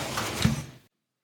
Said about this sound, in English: Shut the door!